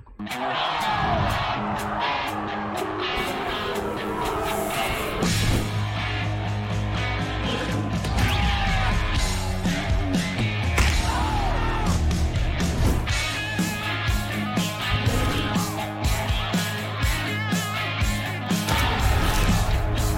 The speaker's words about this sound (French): C'est parti pour le générique.